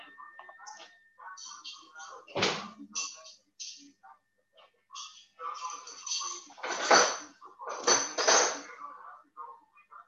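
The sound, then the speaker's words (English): Dishes clatter and clink as they're washed and stacked away, with a few sharp, loud clanks standing out amid lighter rattling and indistinct murmured voices. “To finish the dishes and then turn that off.”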